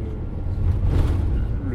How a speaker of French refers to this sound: Bah, on est monté, le bus est parti. Hein. Donc là, on est dans le bus.